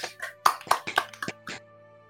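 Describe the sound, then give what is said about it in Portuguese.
A brief burst of hand clapping for the film Wi-Fi Ralph: about half a dozen sharp, uneven claps over roughly a second, fading out, with a faint steady hum underneath. “Uma salva de palmas para o Wi-Fi Ralph.”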